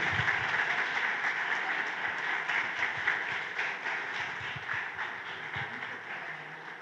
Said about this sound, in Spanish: ¿Por qué no le damos un fuerte aplauso al Señor y toma su asiento?